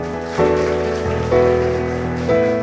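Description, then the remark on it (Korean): A church audience claps steadily, a dense, continuous patter of hands that stays loud throughout, mixed with sustained keyboard or organ chords that change a few times underneath. “믿으시면 감사합니다 박수하시겠습니다.”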